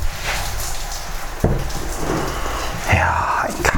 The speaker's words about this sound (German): Kaffee, draußen regnet's.